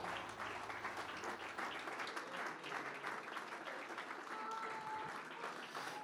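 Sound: audience applauding in praise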